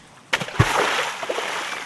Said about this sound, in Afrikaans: Dan kom Sonja vinnig uitgeswem en spring op die rivieroewer.